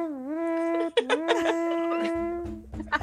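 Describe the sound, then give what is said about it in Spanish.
Someone imitates a shofar horn blast with their voice: a loud, buzzy tone that swoops up and then holds steady for a couple of seconds before dropping lower at the end. “Es más, saquemos el chofar, por favor.”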